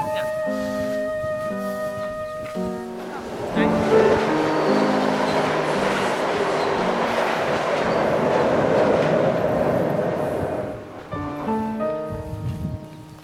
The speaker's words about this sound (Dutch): De trein.